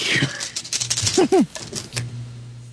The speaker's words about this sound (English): Okay. So get the other dice out of the way.